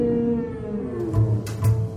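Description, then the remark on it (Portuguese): A blue whale call: long, low, moaning tones with a droning hum beneath, swelling into two deeper pulsing groans toward the end, heard alone with no talking. “Consegues imaginar que animal será este?”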